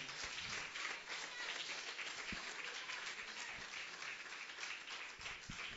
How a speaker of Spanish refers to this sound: Démosle un aplauso fuerte a Cristo en esta hora.